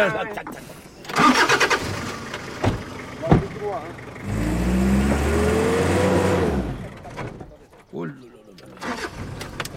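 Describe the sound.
A 4x4 off-road vehicle's engine cranks and starts, then revs up with a rising, rumbling growl for a couple of seconds before settling. People talk before and after.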